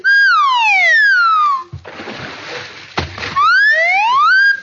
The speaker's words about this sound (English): Why, Clem, that's wonderful. You dived into the water and then came right back up on the bank.